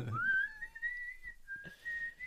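A person whistles a slow, sustained tune, the pitch gliding smoothly between long held notes, fairly clear with a brief break in the middle and a little background noise.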